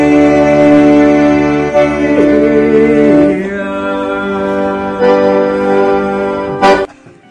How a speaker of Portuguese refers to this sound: Um momento musical com o alto patrocínio do presidente brasileiro. Já tinha ouvido a eh, Ave Maria de Schubert, de Schubert em sanfona, Ricardo Araújo Pereira.